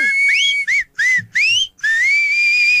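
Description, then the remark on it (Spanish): A person whistles a short, wavering tune: a few rising, swooping phrases separated by brief pauses, ending in one long sustained note that slowly climbs in pitch. “Yo no sé chiflar.”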